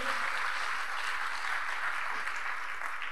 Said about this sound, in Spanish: Entonces, vamos un aplauso a los pastores y a la visión.